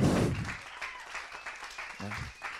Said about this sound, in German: Jetzt darf ich die Speakers nach vorne bitten. Kommt doch mal nach vorne. Geben wir ihnen mal einen fetten Applaus.